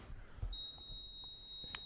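A medical monitor beep sounds as a single high-pitched tone that starts half a second in and holds steady without a break until the end, fairly faint over low background rumble, as a patient is being lost.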